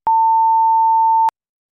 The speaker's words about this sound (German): es ist, äh, es ist bei Minute 37 mache ich einen Piep.